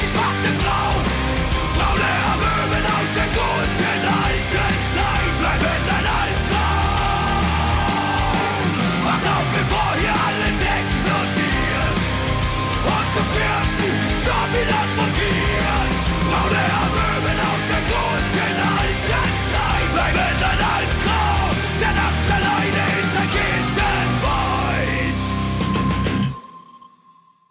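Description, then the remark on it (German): A loud song plays continuously with a dense, full-band mix and driving beat, no speech over it, then stops abruptly just before the end. “Ich weiß, was, kann ich nochmal ganz kurz, äh, äh, ich muss äh, noch mal ganz kurz auf diesen Song eingehen.”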